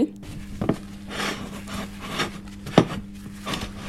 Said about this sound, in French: J'ai pris mon gros plat à gratin, le plus gros que j'ai. Beurrer un plat allant au four.